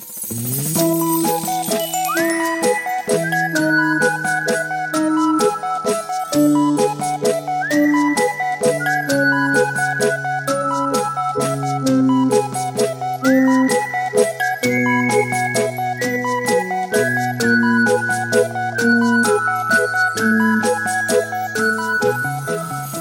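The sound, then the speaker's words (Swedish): A bright, tinkling radio jingle plays on its own, with layered melodic tones repeating in short rising phrases over a steady rhythmic backing, loud and continuous throughout. “Jag, jag drar i jingeltråden här och sen så får vi tillsammans.”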